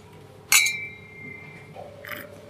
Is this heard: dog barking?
no